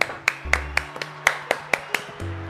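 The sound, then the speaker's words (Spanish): A brief round of hand clapping marking the first program of the second season, roughly eight or nine crisp, sharp claps in a steady, fairly quick rhythm, moderately loud, with no one talking over it. “y eso merece un aplauso de la segunda temporada.”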